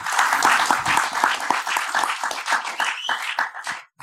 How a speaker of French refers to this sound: Rafik aime vos applaudissements en fait, j'allais les lancer au moment où, j'allais parler d'eux, quoi.